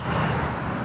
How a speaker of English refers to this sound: sorry for the car noise.